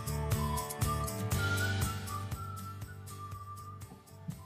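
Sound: whistle sound effect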